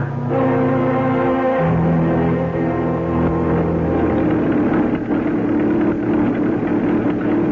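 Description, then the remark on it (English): A car engine runs steadily and loudly throughout as a woman drives the car, its droning pitch shifting a couple of times as if changing gears, with no voices heard. “You surprised to see a woman driving a car?”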